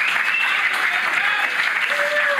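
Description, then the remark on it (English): A round of applause from a live show audience for the panel, steady and fairly loud, a dense wash of many hands clapping together for a couple of seconds with a faint whistle or cheer rising near the end. “What about a round of applause for the panel, folks?”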